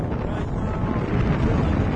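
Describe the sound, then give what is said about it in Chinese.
Loud, steady rushing wind roars and buffets for the full two seconds, a heavy low rumble with a broad hiss on top, as air tears past during a flight in the sky with an instructor. No voices are heard. “我们现在听到的是巨大的风声，然后我的教练”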